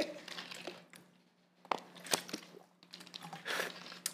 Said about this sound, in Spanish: No, pues es que le tomo un trago al agua porque a está cabrón.